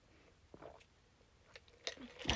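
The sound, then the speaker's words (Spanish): Quiet mouth noises of someone sipping coffee from Veracruz and swallowing, with a few soft wet clicks and a louder slurp near the end; nobody speaks. “Esperen, trago para café.”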